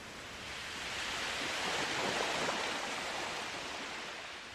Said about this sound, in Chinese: 维多利亚港的海浪每天都在拍打着岸边的海滩。